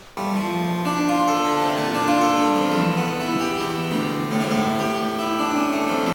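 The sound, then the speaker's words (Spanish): A harpsichord plays a busy, bright passage of plucked notes with sustained harmonic tones, steady and fairly loud for about six seconds, with no voices. “¿Se pueden poner cinco segundos de clavecín?”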